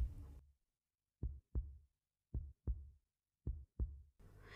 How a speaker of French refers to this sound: Les pulsations dans ses doigts correspondaient parfaitement à ce qu'il entendait. C'étaient les battements de son cœur qu'il confondait avec un bruit extérieur.